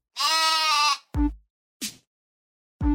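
A woolly sheep lets out one long, wavering bleat, followed by a few shorter, clipped bleats spaced apart, loud with no one speaking.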